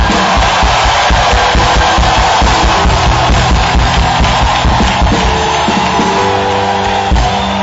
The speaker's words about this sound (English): Clap your hands for the Lord. Give the Lord a shout of victory.